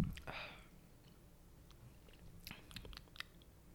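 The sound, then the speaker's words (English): A short airy slurp near the start as someone takes a first sip of a cup of coffee with pink lemonade, elderflower and lime zest notes, then quiet mouth sounds and a few soft clicks and swallows. “This is my first sip of it.”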